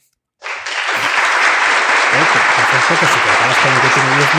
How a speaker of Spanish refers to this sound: Sí, aplausos, Espera, espera, no los he encontrado, o sea que te. Aquí.